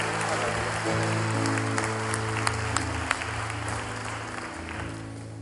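An audience at a morning worship service claps their hands together by faith in a dense, sustained wash of applause, with held keyboard or organ chords droning underneath throughout.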